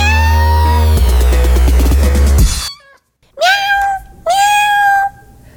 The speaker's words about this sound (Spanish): Él es mi gato y se llama Sakuchan.